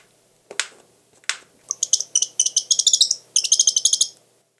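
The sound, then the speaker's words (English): Two sharp, dry bill snaps from a northern saw-whet owl, followed by a rapid, high-pitched twittering call in quick stuttering bursts, with no one speaking. “And here's a twitter call with a snap of the bill.”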